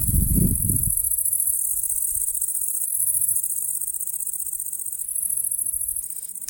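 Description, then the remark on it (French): A steady, high-pitched insect trill of nocturnal crickets and grasshoppers (orthoptera) chirping continuously at night, recorded during a nocturnal listening session of the Vigikiro program with ultrasound-capable equipment, with a brief low rumble at the start and no voices. “Lorsque les scientifiques du programme Vigikiro ont réalisé qu'ils enregistraient au passage des criquets et des grillons, ils ont eu l'idée de lancer le programme SON,”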